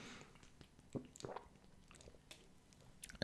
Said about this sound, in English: Were you listening to me drink water?